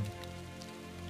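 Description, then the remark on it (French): Steady water dripping and trickling inside a small cave against a low, sustained hum, with soft scattered drops all the way through. The ambience is continuous and fairly quiet, with no voices. “La seule chose que vous entendez en fait, c'est le bruit de l'eau, parce que vous voyez que l'eau continue à s'égoutter et à se frayer un chemin à l'intérieur de cette petite grotte dans laquelle vous êtes.”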